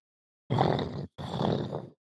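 A deep, rough, dull growl rumbles out in the distance in two drawn-out bursts separated by a brief pause, seeming to come closer. It's fairly loud and raspy, with no talking around it.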